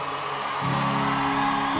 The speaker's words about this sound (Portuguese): Uma salva de palmas à minha mãe também.